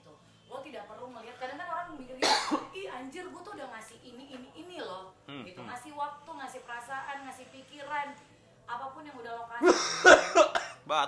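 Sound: coughing and throat clearing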